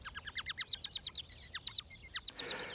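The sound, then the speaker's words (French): A Bengalese finch sings a rapid string of short chirping syllables in varied repeating patterns, ending in a brief harsh, noisy burst. “Les moineaux du Japon ont un chant très élaboré, composé de séquences variables de syllabes, mais le fait que ces séquences de syllabes ne sont pas agencées au hasard à suggéré l'existence d'une syntaxe de base.”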